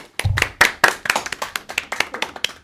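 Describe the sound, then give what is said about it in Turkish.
A small group in a studio control room claps in brisk, slightly uneven bursts for a couple of seconds, clear, with no talking over it, like brief applause. “Rejiden de bir alkış alalım.”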